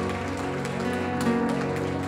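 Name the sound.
audience applauding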